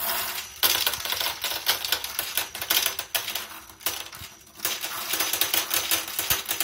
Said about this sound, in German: Aber ich denke, etwas, was wir vielleicht hier sozusagen als Geräusch mitnehmen könnte, wäre das Fallen der Kugeln in das sogenannte Klerotherium.